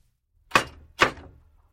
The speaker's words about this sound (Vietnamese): Nhân vật chính gõ cửa tiệm ảnh.